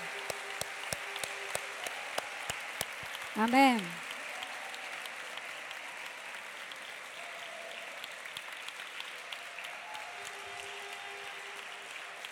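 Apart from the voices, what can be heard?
audience applauding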